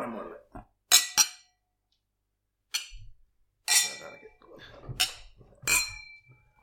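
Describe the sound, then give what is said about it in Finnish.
Drinking glasses clink together in a toast, a handful of bright, ringing chinks spread unevenly across a few seconds, with faint murmuring voices in between. “No niin, otetaan sille. Mm. Otetaan, kyllä. Cheers. Cheers.”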